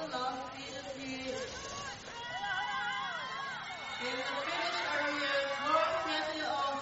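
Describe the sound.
A crowd of Norwegian spectators at a ski race cheers and whoops continuously, with excited shouts and high calls rising over a steady roar of voices, moderately loud throughout.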